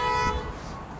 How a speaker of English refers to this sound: this is very close to the public library in Fredericton, New Brunswick, and um, it's really big, very big. There is a massive expressway just beside it, and yeah, it's really busy, super busy. You can hear horns blaring